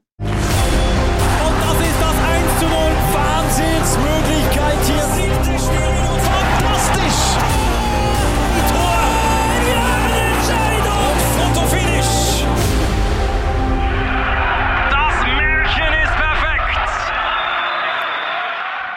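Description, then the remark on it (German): A loud, busy intro jingle plays on its own, full and steady for most of its length, then thins to a brighter passage and tapers off at the end. “Für alle Leute, die jetzt Musik gehört haben, für uns war es ein bisschen speziell gewesen.”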